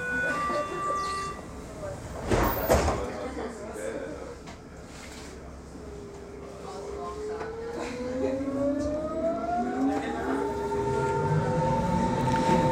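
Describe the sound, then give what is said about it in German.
Inside a moving commuter train riding one station to Ostkreuz: steady rumble of the carriage, a sharp clunk early on, then an electric motor whine rising in pitch as the train speeds up, with people talking over it. “… und ich fahren jetzt eine Station und smarterweise hat er sich genau schon an die richtige Tür gestellt”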